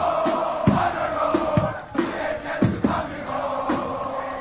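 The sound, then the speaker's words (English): A large crowd of high school students chants a war cry in unison, loud and sustained, punctuated by sharp rhythmic shouts and stamping accents roughly every half second to second, in a war cry challenge between Durban High School and Rustenburg. “HIGH SCHOOL WAR CRY CHALLENGE - DHS VS RUSTENBURG”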